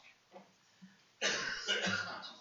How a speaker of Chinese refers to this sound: 哎，表演的非常好啊，这就是咳嗽。